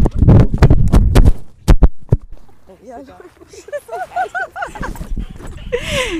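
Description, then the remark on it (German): A burst of loud thumps and clattering knocks as the dog Maler runs between people and knocks over a recorder and microphones, followed by people talking and laughing. “es ist gerade Maler mit einem Wahnsinnssatz zwischen uns durchgerannt und hat Aufnahmegerät und Mikros mit sich mitgerissen.”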